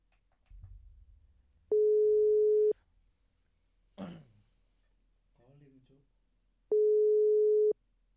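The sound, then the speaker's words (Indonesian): An outgoing WhatsApp call's ringing tone sounds twice, each a steady one-second beep several seconds apart, with a sharp throat-clearing and a faint murmured voice in the gap between them. “Iki BTW telepon WA ya.”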